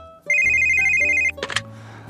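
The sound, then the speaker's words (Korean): A telephone at a clothing shop's customer service line rings with a steady electronic tone for about a second, loud, then cuts off into a brief burst of clatter and a low hum. “그런데 오늘따라 유난히 그런 전화가 많이 왔습니다.”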